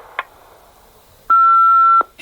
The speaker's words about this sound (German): Bitte sprechen Sie nach dem Pfeifton.